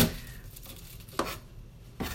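A knife chops Chinese cabbage on a board: a handful of crisp, irregularly spaced thuds, fairly quiet, with no talking and a soft background hush between strikes.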